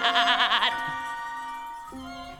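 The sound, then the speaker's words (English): A singing voice imitates a goat in a song from the musical Wicked, opening with a rapid quavering bleat before settling into a long held note that drops lower near the end. It is clear, with no other sounds. “Is that the one that the goat sings? Yes. That they kind of he kind of half bleats”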